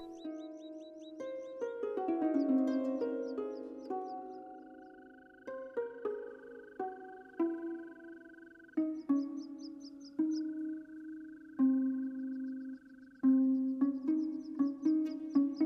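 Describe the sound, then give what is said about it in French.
Short high chirping trills recur in quick bursts, like a small bird singing, over slow sustained tonal notes that ring out and overlap. There is no talking. “L'oiseau continue à chanter”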